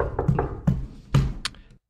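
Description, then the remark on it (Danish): Several dull, thudding knocks on a door, about four in a loose, uneven rhythm, moderately loud, with no voices. “Nå, jeg, de stoppede med at banke.”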